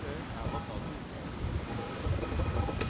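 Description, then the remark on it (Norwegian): Sea spray splashes over the bow of a sailboat sailing upwind in a current, amid steady wind and rushing water, with a sharper burst of spray near the end, loud. “Ja, vi fikk sjøsprøyt over foran et beistbryne der, og, og folk står Vi må, vi må ehm, prøve å komme oss så mye opp i vinden vi klarer, for her er litt strøm.”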